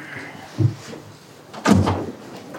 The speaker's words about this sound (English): Let me open this door for you.